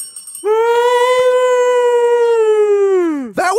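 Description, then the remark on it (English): A person imitating a Bigfoot call belts out one long, loud howling cry that holds a steady pitch for about three seconds, then slides down and breaks off. “I want to hear your Bigfoot call.”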